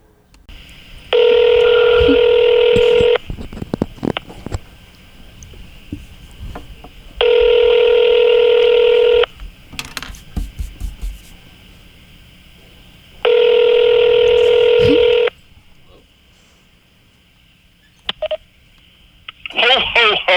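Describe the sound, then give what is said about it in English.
Three loud, steady telephone tones as a call is placed to Santa Claus, each about two seconds long, separated by roughly four-second pauses. The tone has a bright, buzzy quality, with faint background noise between the tones. “We're going to call Santa Claus.”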